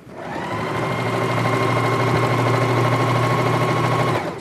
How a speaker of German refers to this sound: So, jetzt schnurren sie endlich die Maschinen, mit denen hier beim Malteser Empowerment Projekt Taschen genäht werden.